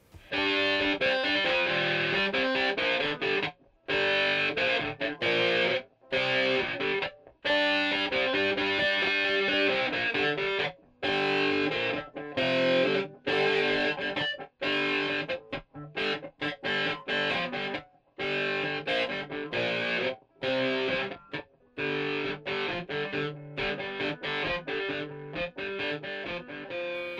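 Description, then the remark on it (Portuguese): A loud, heavily distorted electric guitar plays a buzzing, harmonically rich riff, with sustained chords broken by repeated abrupt stops and short silences; the tone was found by chance in a recording studio and recorded without any added effects. “Mas se por um lado o som da guitarra foi descoberto por acaso, o som da bateria não teve a mesma sorte.”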